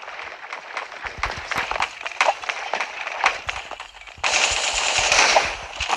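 Rapid bursts of video game gunfire crackle in quick succession, dense and continuous, growing louder and denser in the final seconds with no talking over it.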